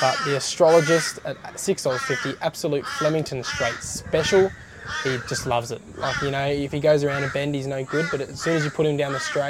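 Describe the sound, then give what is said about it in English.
A crow caws repeatedly in the background, faint, beneath a man talking steadily in the foreground about horse race tips. “Sorry if you can hear that crow in the background.”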